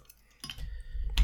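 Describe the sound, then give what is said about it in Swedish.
Glass bottles clink as another beer is opened, with two sharp bright knocks about a second apart over soft handling rumble. “Uh, jag tänker öppna en till öl här.”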